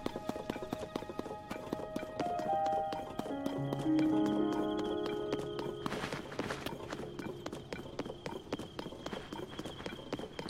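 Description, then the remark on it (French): Horse hooves clip-clop steadily and rapidly for the whole stretch, a dense run of sharp clicks over a bed of sustained tones and a low hum, with no talking. “Il y a des chevaux là-bas.”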